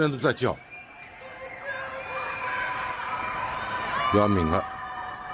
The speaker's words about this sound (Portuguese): E são as pessoas nos arranha-céus de Xangai, fechadas dentro de casa, a gritar, a dizer que querem sair de casa.